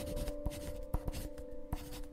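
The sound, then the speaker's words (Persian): A pen scratches across paper in short strokes with a few sharper taps, fairly quiet, over a steady low hum, as an address and a meeting time are written on a sheet of paper taken from a desk. No one speaks. “یه کاغذ و خودکار از رو میز برداشتم بهش دادم و گفتم آدرس و ساعت زیافت رو برام رو این کاغذ بنویس”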